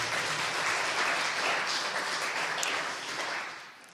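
An audience applauds, a dense, steady wash of many hands clapping that holds for a few seconds and then begins to fade toward the end, with no voices over it.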